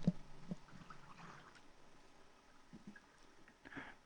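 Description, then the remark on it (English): Apple cider being poured, a soft, steady splashing and gurgling that runs for a few seconds, fairly quiet, with a few small knocks at the start and no talking. “We're going to pour in our uh, apple cider.”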